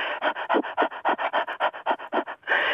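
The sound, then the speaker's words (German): A person pants rapidly like a dog with tongue hanging out, demonstrating a breathing exercise to relax the diaphragm, a steady run of about fifteen quick, breathy huffs, ending in a longer exhale, with no talking. “Wenn die dann hecheln mit der raushängenden Zunge, ich mach's mal vor.”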